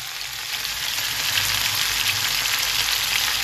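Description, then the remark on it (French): Steady, dense sizzling of food cooking in a hot pan, a continuous crackling hiss that holds at an even loudness with no voices. “Vous entendez cuire.”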